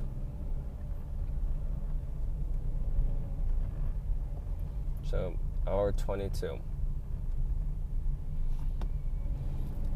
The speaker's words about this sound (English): So much fucking traffic.